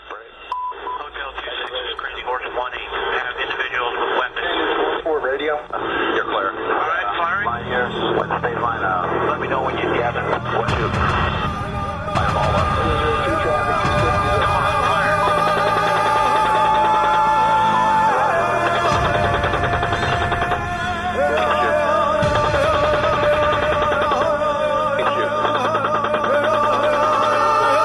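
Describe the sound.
A recorded song plays back steadily, sounding thin and muffled at first, then opening into a full mix with bass, rhythmic accompaniment and a singing voice.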